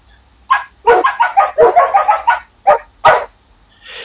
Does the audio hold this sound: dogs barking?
yes